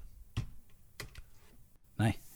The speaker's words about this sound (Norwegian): nå skal jeg bare eh, trykke litt på tastaturet mitt, fordi at jeg husker ja, ikke Trykke ekstra høyt, da, eh, sånn at vi hører det.